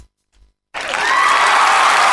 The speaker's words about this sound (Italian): Ma cosa mandi l'applauso registrato?